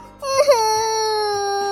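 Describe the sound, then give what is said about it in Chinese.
A voice imitates a crying little bee in a children's story with a single sustained wail: it opens with a wobbling sob around half a second in, then holds a steady, fairly high-pitched cry, loud and alone. “哎哎，你别真的哭了！”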